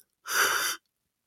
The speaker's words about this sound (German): ich finde, wir sollten mal wieder gähnen, oder? Ich finde, es ist Zeit für eine Gähnpause.